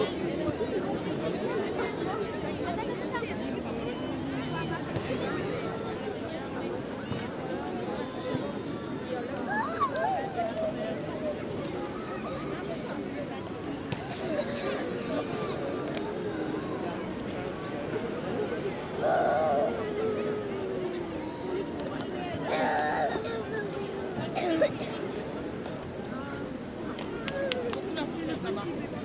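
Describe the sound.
A steady wash of crowd chatter at the Plage des Catalans beach in Marseille, France, many overlapping voices murmuring and calling out, with occasional brighter shouts rising above a continuous background hum.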